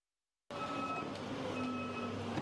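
A train from Italy hums steadily at Menton-Garavant station in France, 2 km from the border, where trains are inspected, with a dense mechanical rumble and faint high whining tones, starting abruptly after a brief silence and continuing evenly without any voices.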